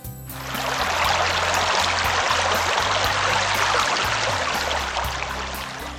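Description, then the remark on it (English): A steady rush of water flowing in a wide river fades in and runs continuously, fairly loud, with a faint low hum beneath it and no voices. “Soon they come to a wide river.”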